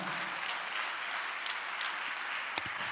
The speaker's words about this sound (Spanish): ¿Cuántos le dan un aplauso a Cristo, amado hermano?